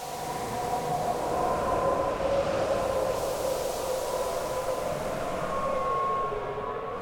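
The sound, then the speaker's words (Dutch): A steady, continuous wind sound effect, a sound-design layer in a theme park attraction's mix, roars throughout, with a low whistling howl drifting slightly in pitch over a dense rushing noise. It stays loud and even, with no voices. “Ehm, hier heb ik ook nog, eh, als de witte wieven aankomen, waar je wil ik bijna zeggen, dan doen ze dat op allerlei eh, sounddesign, geluiden, wind.”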